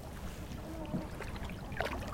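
Steady low wash of water around a small sabani boat being paddled out to sea on calm water in fine weather, with soft splashy paddle strokes every so often, including one near the end, over faint wind.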